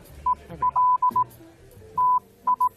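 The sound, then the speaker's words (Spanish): A steady single-pitched tone keys on and off in a pattern of short dots and longer dashes, like Morse code, loud and clear with a pause midway and no one speaking. “Ahora nos vamos con Roberto Brasero, que nos recuerda que el 24 de mayo de 1844 se envió el primer mensaje transmitido por el código Morse y explica cómo afectó en la historia de la meteorología.”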